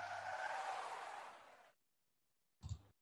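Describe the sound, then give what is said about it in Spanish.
A loud, sustained screech of car tires skidding on a road for under two seconds, cutting off abruptly, followed after a brief silence by a short, heavy low thump; the skid comes from a tire blowout caused by a plank with nails left in the middle of the road. “Era un derrape.”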